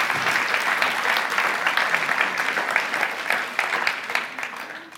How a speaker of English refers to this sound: I'm going to invite you guys up to the stage. So, come on up and give them a big applause as they're coming.